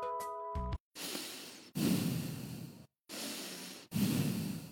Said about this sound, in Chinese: 还有呼吸声。原来我们的身体里还有这么多的声音呢。